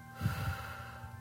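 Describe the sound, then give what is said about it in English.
A soft, slow exhale during a finger-tracing breathing exercise, a breathy rush that swells briefly and then trails off quietly over a faint steady background hum. “And breathing out”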